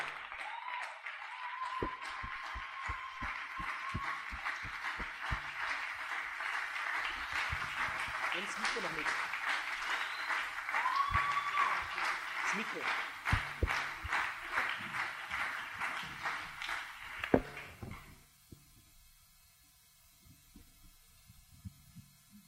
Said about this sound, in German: Und die würde ich, dass wir die mit einem tosenden ICF Salzburg Standing Ovations Applaus auf der Bühne begrüßen.